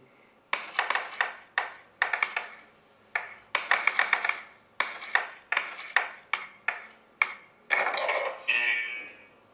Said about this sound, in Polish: Jak słychać wyraźnie są różne dźwięki do odbijania piłki, gdy piłka się odbija od ściany, E, gdy wpadnie do bramki, więc wszystko jest e, dobrze, mm, że tak powiem, udźwiękowane, jeśli chodzi o dźwięki.